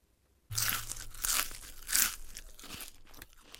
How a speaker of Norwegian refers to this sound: Og den smaskelyden betyr at nå er det på tide med kinopremiere.